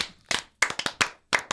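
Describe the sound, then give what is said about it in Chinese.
A short rhythmic burst of hand clapping in the "love encouragement" (爱的鼓励) pattern, about seven sharp claps in an encouraging patterned beat: a single clap, a quick cluster of claps, then spaced claps. Crisp and fairly loud, with no talking. “爱的鼓励，一起来。”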